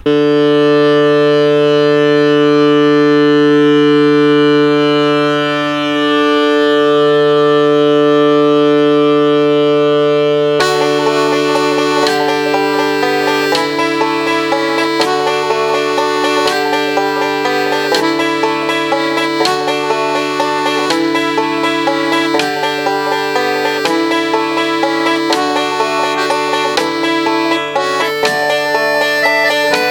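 A folk tune plays loudly, opening with a sustained droning chord for about ten seconds before a steady, rhythmic instrumental accompaniment kicks in. No singing or talking is heard.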